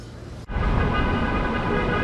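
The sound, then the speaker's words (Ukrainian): A loud, dense mass of car horns blares continuously over rumbling traffic as a convoy of nearly 400 cars drives through Los Angeles to the city center and city hall, many vehicles sounding at once after a brief quieter moment at the start. “Через місто до центру їдуть тиснучи на клаксони майже 400 автомобілів.”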